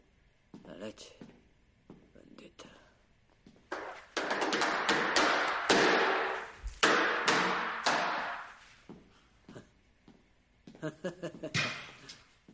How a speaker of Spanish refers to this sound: Golpea un mezclador con las palmas.